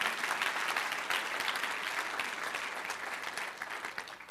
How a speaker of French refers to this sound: Donc, bravo. Est-ce qu'on peut les applaudir quand même? Merci d'être là ce matin.